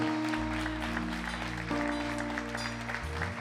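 Steady applause from a church audience clapping for the Lord, a dense continuous patter of clapping over sustained low musical tones from an organ or keyboard.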